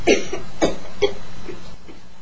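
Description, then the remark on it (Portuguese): A rapid fit of harsh coughs from a woman waking in distress, caused by pressure on her throat, about four or five bursts in quick succession that weaken toward the end, with no talking. “Acordando desesperada e com acesso de tosse, fruto da pressão sobre a sua garganta a refletir-se no corpo quando do retorno.”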